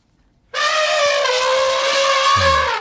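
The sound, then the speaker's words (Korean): A single loud, brassy elephant trumpet blasts in suddenly and holds steady for over two seconds before cutting off, harsh and rich in overtones, with no voices around it. “코끼리 소리예요.”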